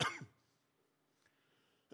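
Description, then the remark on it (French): A single harsh cough from a preacher's persistent cough bursts out loud at the start of a pause in a French-language sermon, then fades into quiet for the rest of the moment. “excusez-moi, j'ai cette toux qui est persistante.”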